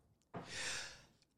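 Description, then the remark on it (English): A single sneeze: a sudden sharp burst of breath that trails into a breathy, hissing exhale lasting under a second, with quiet surroundings and no talking. “Bless you. There's a real sneeze there.”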